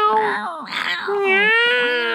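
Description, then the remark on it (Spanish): A cat meows in long, drawn-out, wavering cries, its pitch bending up and down across a few connected yowls, loud and unbroken by any talk. “Ese gato le han dado whiskas con ron.”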